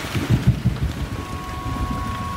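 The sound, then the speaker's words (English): Steady rain hisses throughout while low thunder rumbles and rolls underneath, a dense, continuous storm sound with no voices. “There was a storm.”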